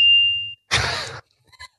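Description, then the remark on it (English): A single bright, high xylophone note rings out as a cue to move on to the next word in a timed word-guessing game, sustaining for about half a second, followed by a breathy sigh and a few faint small sounds. “And you have 60 seconds on the clock, and then when you get the correct one, it, you'll know it's time to move on when you hear the xylophone.”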